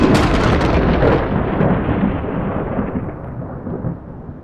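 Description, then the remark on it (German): A loud thunderclap right after a huge lightning flash bursts out and then rolls on as a long, deep rumble that slowly fades, with a hiss of rain underneath and no voices. “Ein Wahnsinnsblitz. Hau und grau und dann ein mega lauter Knall.”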